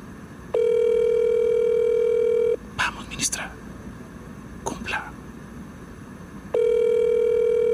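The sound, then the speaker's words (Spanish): A phone line rings twice, calling the personal phone of minister Karen Abudinem: a long, steady electronic tone for about two seconds, a pause filled with faint crackles and rustling, then the same loud ringing tone starting again. “Esperemos que la tercera sea la vencida. Es el teléfono personal de la ministra Karen Abudinem”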